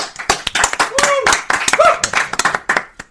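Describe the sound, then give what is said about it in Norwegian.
A few people clap in an irregular, uneven patter of sharp, loud hand claps for about three seconds, with brief voiced whoops or laughter mixed in partway through. “Jeg får applaus.”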